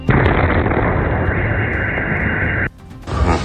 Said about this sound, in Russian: Короче, только что бомбануло, вибрация такая же была, как и БПЛа. А, все проснулись, а, Сейчас пока не знаем даже, в какую башню прилетела. Ну, вроде говорят, в Меркурии.